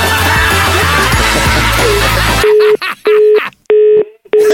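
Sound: telephone busy tone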